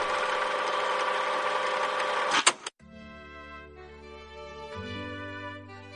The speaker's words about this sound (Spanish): Así que pongo en marcha mi máquina del tiempo para rebobinar al año 1899.